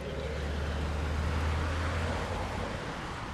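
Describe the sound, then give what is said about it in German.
A steady, dense roar of traffic with deep engine rumble from cars, buses and trucks crawling in a seemingly constant jam along the riverside roads of the Kura River in Tbilisi, continuous with no gaps and no voices. “unten schieben sich Autos, Busse und Lastwagen anscheinend im Dauerstau auf den Uferstraßen des Kura-Flusses entlang.”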